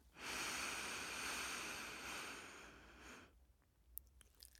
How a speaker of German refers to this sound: Linkes Nasenloch einatmen.